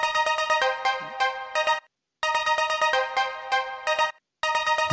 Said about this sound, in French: Alors, je ne saurais pas trop déterminer ce que c'est. Pour moi, ça me fait penser à une sorte de cloche, mais très très très sèche, où on aurait retiré tous l'écho, en fait, où il y aurait juste le mhm. tap.